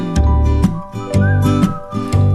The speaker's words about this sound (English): I think maybe he's gonna be a professional whistler someday. Someone's whistling. One's whistling.